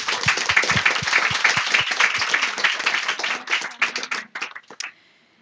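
A crowd claps steadily, a dense wash of hands that holds for about four seconds, then thins into a few scattered late claps before fading out.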